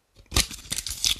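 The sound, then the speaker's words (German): A crinkly plastic wrapper taken off a Juicy Mango drink can being crumpled to throw in the bin, a sharp bright crackle that starts after a brief silence and continues in uneven bursts of rustling, with no voices. “Ding hier drauf zerknütteln wir und packen mal in den Mülleimer und machen die Dose auf.”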